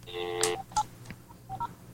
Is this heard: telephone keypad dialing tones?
yes